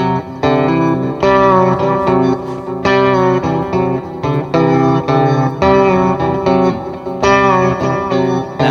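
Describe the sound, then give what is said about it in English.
A loud, heavily distorted electric guitar riff played by a band while recording in the live room at Water Music: thick, buzzing chords repeat in blocks with short breaks, a steady driving rhythm and no voices. “This is the riff that got me fired from Water Music.”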